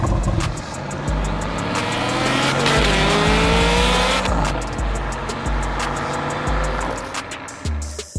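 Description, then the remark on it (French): A powerful, large-displacement car engine revs hard and loud, its pitch climbing and dropping through several throttle bursts over a steady deep rumble, with no talking. “Ouais, parce qu'on va pas parler que des croissances, on va aussi parler gros cylindrés, on va parler bagnole.”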